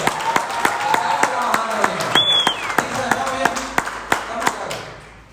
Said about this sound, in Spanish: Un fuerte aplauso